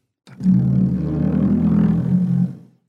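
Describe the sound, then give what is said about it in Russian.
A wet finger rubbed across a drum membrane produces a single low, sustained moaning groan lasting about two seconds, fairly loud, imitating whales communicating underwater. “Как общаются киты под водой.”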